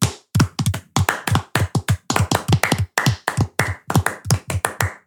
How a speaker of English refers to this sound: All right, let's get some synchronicity with this. Let's get some clap. I'm going to clap like this.